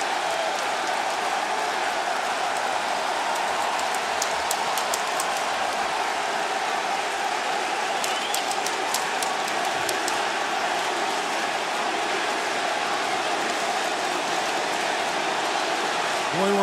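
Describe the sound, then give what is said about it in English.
A loud arena crowd of AEW wrestling fans in New York, on their feet, roars steadily throughout, with bursts of rhythmic clapping or chanting rising out of the constant wash of cheering noise, as Bryan Danielson and his opponent have yet to lock up. “They're loving this, and these two men have yet to lock up. My God, what anticipation. New York is AEW country. You can hear it.”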